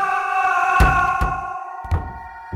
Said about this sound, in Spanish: De pronto escuché un grito ensordecedor y como si una puerta de madera se cerrara bruscamente.